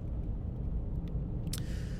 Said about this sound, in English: out right now in the car, taking my son for a drive, help him get a nap.